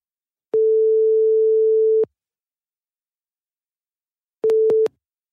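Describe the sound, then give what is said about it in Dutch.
A telephone ringback tone on an outgoing call to a person in Italy: one steady, mid-pitched beep lasting about a second and a half, a pause, then a brief tone cut off by clicks as the line connects. “Dus ik stel voor dat we hem even gaan bellen.”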